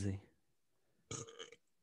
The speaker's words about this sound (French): Ah, ce Rot était commandité par... Labat Bleu Dry 6.1.